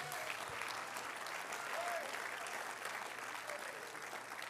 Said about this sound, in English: Oh, clap your hands and thank the Lord for it today.